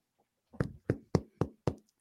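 Five dull, hollow knocks on a skull, rapped in a quick, even rhythm, with no talking during the knocks, in a scene from the film Fast Times.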